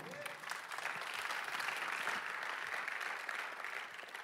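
Sustained audience applause at a Sunday Night event as a speaker is called on stage, a dense, steady wash of many hands clapping at an even loudness throughout, with no distinct individual claps standing out.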